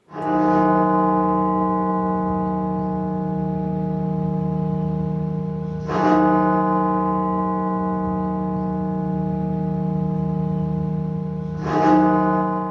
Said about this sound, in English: Throughout the pandemic, the Washington National Cathedral has rung its bell to memorialize the lives lost to COVID 19. The cathedral held its final bell ceremony to mark a milestone. One million people nationwide have died from coronavirus.